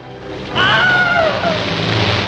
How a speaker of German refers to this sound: A Wilhelm Scream ist so ein, ähm, ich spiele den gleich, ich spiele ich spiel den mal an.